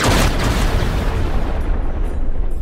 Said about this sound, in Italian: Un fulmine quindi scorciò il cielo e si abbatté precisamente dove si trovava l'uomo pochi secondi prima.